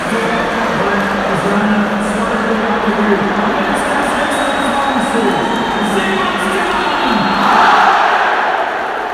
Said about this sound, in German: So hörte sich der Jubel nach dem Treffer in der 82. Minute an.